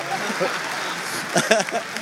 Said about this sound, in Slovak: Vidíš? Nepočúvali a tleskajú.